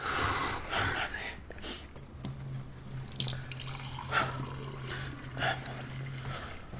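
Water runs from a tap and splashes into a glass, a steady trickle lasting several seconds over a low mechanical hum, with faint clinks and movement around it.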